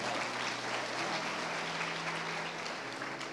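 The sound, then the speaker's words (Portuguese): A crowd applauds steadily for a big, strong man called up from the audience: a dense wash of many hands clapping at an even level for several seconds, with a faint low hum underneath and no one speaking. “Uma salva de palmas”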